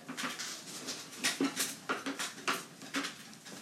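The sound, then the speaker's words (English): An office chair creaks and squeaks in a rapid series of short bursts as someone shifts their weight to sit up straight in the seat, with no talking. “you hear that? Like that's just like so it's so noisy, it's so distracting.”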